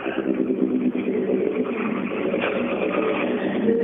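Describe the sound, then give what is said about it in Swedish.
Several Toyota Corolla race cars rumble past, their engines droning loud and steady with a layered, buzzing tone and no clear gap between cars. No voices. “Ner Coroller kommer ner.”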